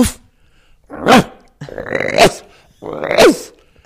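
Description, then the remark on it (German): A person imitates a water deer's harsh alarm bark: three loud, rasping barks spaced about a second apart, with no talking in between. “So, ja, der Schrecklaut des Wasserrehes, ein harsches Bellen.”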